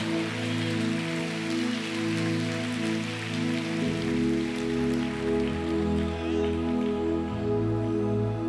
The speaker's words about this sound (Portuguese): pode aplaudir, irmão, aplaude de verdade, pelo amor de Deus.